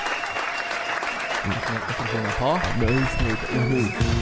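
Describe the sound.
Steady audience applause for two young women runs through the whole stretch, a dense wash of clapping, with a voice rising over it about halfway through.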